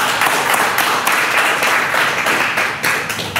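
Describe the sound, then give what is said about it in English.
A crowd claps steadily, a dense wash of many hands at a loud, even level for a few seconds, with faint voices mixed in beneath the applause. “You can clap your hands.”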